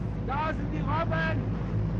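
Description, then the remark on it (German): A steady, loud low engine rumble of a motorboat underway on a roughly ten-minute ride across a bay, with the Kaha Mountains behind the coastline, with wind and water noise throughout and brief bursts of a voice speaking over it. “Die Fahrt mit dem Boot dauert knapp zehn Minuten und schon kurz nach dem Start bietet sich ein Naturschauspiel”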